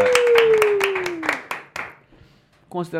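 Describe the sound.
A brief round of applause: brisk, loud claps that fade out over about two seconds, with a long falling tone over the start, followed by a voice beginning to speak.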